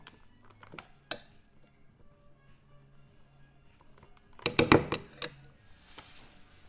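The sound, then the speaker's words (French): A spoon stirs a rehydrating freeze-dried meal in its pouch: a few scattered clicks and scrapes, then a short, busier burst of crinkling and scraping before it settles again. “Je mélange.”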